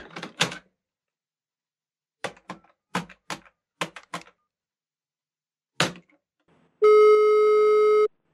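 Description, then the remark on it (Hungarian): A handful of sharp clicks and taps, like a phone being handled and dialed, then a steady electronic ringing tone sounds loudly for just over a second as the call goes through. “Atlanta, Travis Lang, fel kell hívnom. Ah, most mindent bele. Most nem tudok megnyugodni. Hol a telefon?”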